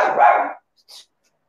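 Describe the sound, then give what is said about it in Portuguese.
A dog lets out one loud bark lasting about half a second, followed by a brief, fainter yip. No one speaks. “Peraí, só um minuto que o cachorro aqui tá competindo comigo.”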